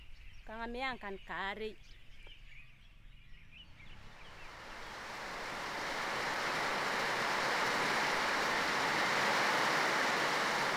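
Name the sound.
rain starting to fall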